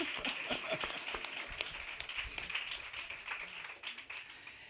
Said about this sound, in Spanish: Pues vamos a hacer un aplauso